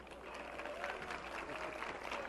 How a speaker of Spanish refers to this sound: Bueno, pues voy a usar un, pequeño truco, es sin ánimo de, tratar de influir en, el ánimo del jurado, desde luego, pero quisiera oír con el aplauso de ustedes cómo les pareció la primera interpretación de los señores.